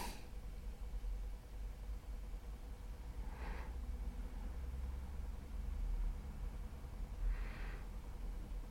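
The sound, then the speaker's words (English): A car rolls in with a steady, low engine rumble that holds throughout, while two short breathy bursts cut through partway along. No one speaks. “Rather convenient that they fly off and then a uh, car rolls in.”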